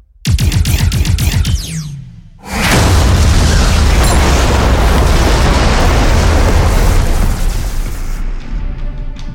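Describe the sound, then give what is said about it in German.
A synthetic energy weapon fires in space with a rapid pulsing zap, then an enemy ship explodes in a huge, sustained roar with deep rumbling and crackling debris that slowly tails off. No one speaks. “Sehr guter Schuss. Einer weniger.”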